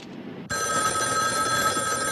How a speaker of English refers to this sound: Yeah, what I've done is I've tapped this phone so that when it rings, it'll ring at the station house, too.